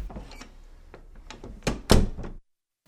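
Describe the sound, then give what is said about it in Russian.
A series of dull knocks and thumps, starting light and uneven, then two heavier blows near the end before it falls silent. No voices stand out. “где-то стук, потом глухие голоса.”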